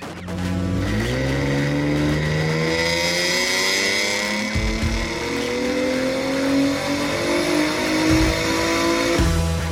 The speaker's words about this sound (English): Those car sounds sounding fantastic, by the way. Those are courtesy of Josh Maldonado, and that is his 2007 Acura TL Type S on the dyno. He said it's making 294 horsepower to the wheel I bet that is a ton of fun.